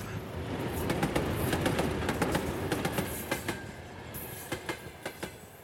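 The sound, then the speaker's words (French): A locomotive train rolls by on the rails with a heavy, steady rumble and sharp metallic clicks, settling into a regular clickety-clack rhythm as the noise fades toward the end. “Les locomotives, ça varie beaucoup en puissance.”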